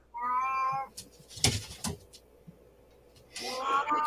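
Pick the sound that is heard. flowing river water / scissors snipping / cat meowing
cat meowing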